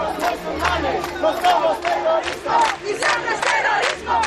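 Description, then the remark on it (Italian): A large crowd on the Rambla in Barcelona chants the slogan "they are murderers, not Muslims" in unison, loud overlapping voices rising and falling in rhythmic bursts, shouted words repeating over a steady crowd roar. “Sono assassini non musulmani, è il grido che cheggia intanto sulla Rambla.”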